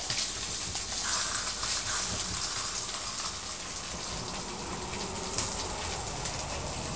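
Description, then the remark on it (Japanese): Pork belly sizzles steadily in a frying pan, a continuous hiss dotted with fine crackles and pops, fairly even in loudness throughout with no voices. “波形見てるのもこれ面白いなっていうのがあって、さっき結構ババチバチっていうか、焼けてる音してた時の半分ぐらいまで今、うん。波形縮まってる。”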